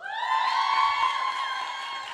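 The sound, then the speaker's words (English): A live audience erupts in loud, sustained cheering and high-pitched shouting, making noise to vote for Fang to move on, many voices blending into one continuous roar that holds steady for a couple of seconds. “okay, uh, if you think Fang should move on, make some noise.”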